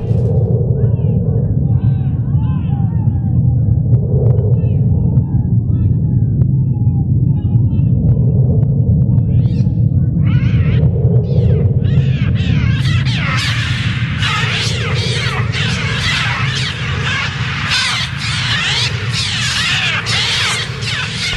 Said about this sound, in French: ce même instrument qu'il a lui-même réalisé les effets sonores des oiseaux, le film d'Hitchcock. Et eh oui, les cris des oiseaux, les battements d'ailes, toute l'ambiance sonore du film a été produite par un mixture trautonium.